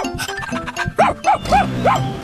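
animal, dog barking

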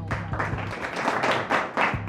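crowd, applause

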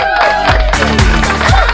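crowd, sparse applause

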